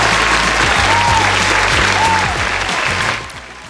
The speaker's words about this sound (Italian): E qui ci sta un applauso.